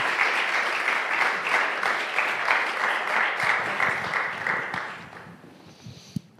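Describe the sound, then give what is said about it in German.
Audience applause at a church service, for a speaker thanked for her explanations during a sermon: dense, steady clapping from many hands that holds for about five seconds, then thins out and fades, with a single sharp clap near the end. “Gebt ihr doch einen Applaus.”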